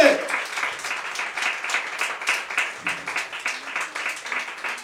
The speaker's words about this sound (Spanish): Hermano, si le va a aplaudir al Señor, apláudale pues, con todo su corazón.